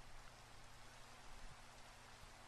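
Soft, steady rainfall hisses continuously with no breaks or distinct drops standing out, a faint background wash of rain with no voices.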